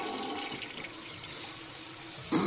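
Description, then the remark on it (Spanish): A toilet in a basement is flushed after a bucket is rinsed in it, with a steady, hissing rush of water that swells and surges over a couple of seconds, ending in a louder gurgling burst. No one speaks. “Walt tira de la cadena.”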